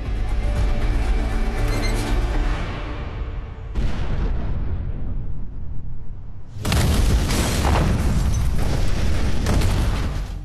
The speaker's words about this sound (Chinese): 奇怪的是，爆炸实际上发生了两次，第二次是在第一次的几十秒后，并且没有爆炸中心，而现场除了钢丝床、蜂窝炉和电风扇等民用物品，并没有发现任何违禁品。